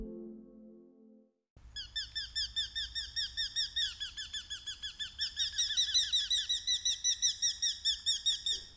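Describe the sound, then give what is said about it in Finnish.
A Eurasian hobby gives a fast, steady series of shrill, high-pitched 'kew' notes, about two dozen in a row, loud and unbroken, with a low hum beneath and no talking. “Nuolihaukka on osuva nimi petolinnulle, joka syöksyy 110 kilometrin tuntivauhtia.”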